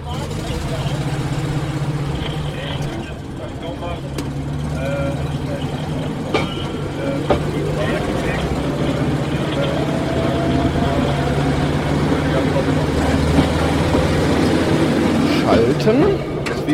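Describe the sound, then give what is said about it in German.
A rail draisine built by the firm FKF of Frankfurt pulls off a turntable, its engine droning steadily and loudly, with occasional metallic clicks and clanks from the track and some muffled talk underneath. “So, wir stehen jetzt auf der Drehscheibe, fahren raus”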